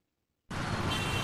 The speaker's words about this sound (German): Unübersichtlich, chaotisch, ohrenbetäubend laut und stinkend. Es ist der alltägliche Verkehrswahnsinn in Delhi.